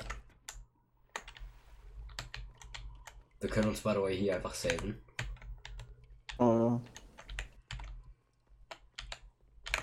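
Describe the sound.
Rapid, hard clacking of a computer keyboard being hammered throughout, sharp key strikes in quick irregular bursts, with a man briefly speaking over it in the middle.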